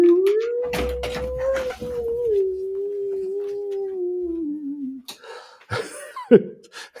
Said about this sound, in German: Ja, im Hintergrund jault schon ein Wolf, weil es so dunkel ist.